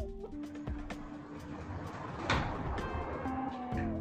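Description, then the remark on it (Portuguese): A door knocks and rattles in gusting wind, with one louder thump midway and faint creaking underneath; no one speaks. “Estou escutando o vento batendo na porta.”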